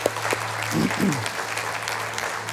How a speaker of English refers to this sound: Can we just applaud these people that have a calling on their life today?